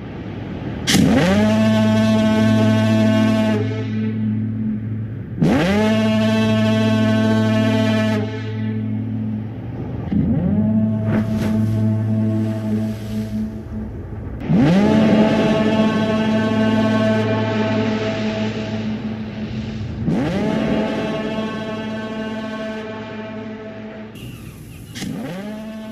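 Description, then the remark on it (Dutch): A deep foghorn from the film The Lighthouse blares in a series of long, loud blasts, each holding a rich, brassy tone before cutting off and sounding again, with no talking. “Die misthoorn.”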